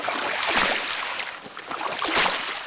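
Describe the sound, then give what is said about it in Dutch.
A speedboat rushes through water, its hull slapping and hissing over waves in two louder surges, with broad splashing spray and a steady churning roar. “Speedboot | Boten”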